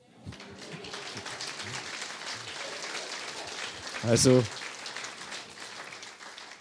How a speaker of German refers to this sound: der Applaus gehört wirklich dem Herrn.